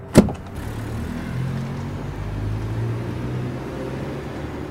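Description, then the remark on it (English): A single sharp thud like a car door shutting as a woman gets into the car, followed by the steady low hum of an idling car interior that carries on evenly to the end. No one speaks. “The once pretty girl got in the car.”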